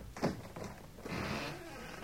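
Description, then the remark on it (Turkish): A house door is opened for a visitor with a short knock-like thud followed by a scraping, sliding rattle as it swings, moderately loud, with no talking. “Benim hanım aç kapıyı. Tamam şimdi açıyorum.”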